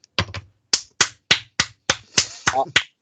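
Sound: applause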